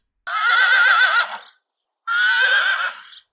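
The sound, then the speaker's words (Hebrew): A black horse neighs twice, loud: a long quavering whinny followed after a short pause by a second, briefer one, with nothing else around it. “שני השומרים המשיכו להתווכח ביניהם במשך חמש דקות, עד שבסוף הם החליטו לתת את כוס המים לסוס השחור שעמד לידם.”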